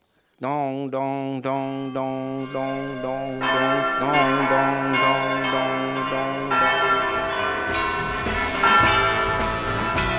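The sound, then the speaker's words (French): Church bells ring loudly at 7 a.m. on a Sunday morning: a single bell strikes in quick regular succession, then more bells join in, building into a dense, continuous clanging peal with no voices. “J'ai fait le comptage, vous prenez quand même à 7h du matin, le dimanche matin, à peu près 150, 150 coups de cloche.”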